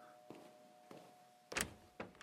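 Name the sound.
front door being opened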